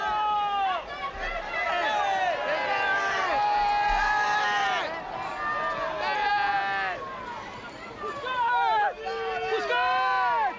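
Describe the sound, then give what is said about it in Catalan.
A crowd of football fans chants in a stadium, many voices rising and falling together in a continuous, loud, melodic chant with wavering pitch, steady throughout. “Ei, eh, el càntic.”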